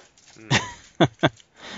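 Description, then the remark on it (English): A dog sniffs in three short, breathy bursts, the last two quick together, with a faint whine just before the first sniff. “what was wrong with that damn dog?”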